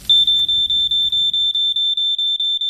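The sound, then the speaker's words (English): A shrill household smoke alarm beeps in a rapid, steady series of about a dozen pulses, loud, with a faint low rumble underneath that fades out partway through. “Make sure you fit a smoke alarm and test it weekly.”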